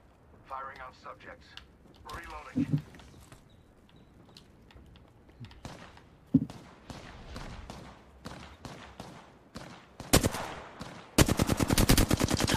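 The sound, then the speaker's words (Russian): Rapid bursts of video game machine gun fire as the player gets shot, loud, building into sustained rattling volleys toward the end, with voices talking over the earlier part. “Getting shot”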